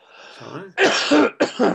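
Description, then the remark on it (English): A person coughs: a soft throaty rasp, then two or three harsh, loud bursts in quick succession with a brief gap between them, and no talking. “Sorry, excuse me, coughing again.”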